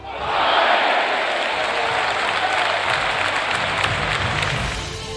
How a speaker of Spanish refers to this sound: Se notó en la taquilla y en la ilusión de los aficionados, que recoja esta ovación desde Onda Ruedo.